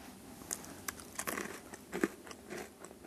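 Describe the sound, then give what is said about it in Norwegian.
A colleague bites and chews two pieces of dried stockfish (tørrfisk), one blessed and one not: a series of sharp, irregular cracks and crackles, moderately loud, with quieter rustling in between and no talking. “ta denne tørrfisken da, som eksempel. Jeg har to biter i hånda mi.”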